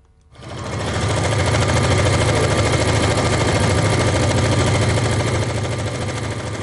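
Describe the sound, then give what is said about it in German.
Sewing machines in the Stoffherz sewing shop in Arbon run flat out after a brief quiet start, sewing blankets for Ukrainian refugees: a loud, steady, rapid mechanical whirring and rattling that holds constant to the end with no voices. “Nähmaschine im Nähladen Stoffherz Abon laufen auf Hochtouren.”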